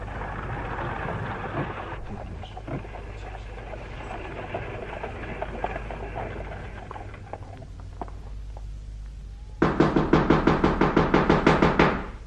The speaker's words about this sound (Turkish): Kim o? Kapıyı vuran kim?